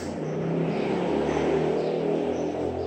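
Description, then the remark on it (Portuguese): A motorcycle engine roars by outside, a loud, steady droning rumble that fills the moment with no one talking over it. “Pausa para o imbecil ali da moto.”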